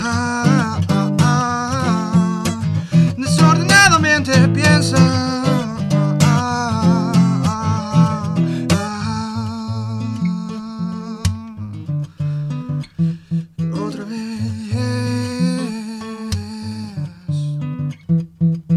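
An acoustic song performed live in an acoustic session on Estación Untref, the closing track of the band's first album, a singing voice carried over strummed and plucked instruments, steady and fairly loud throughout before thinning out near the end.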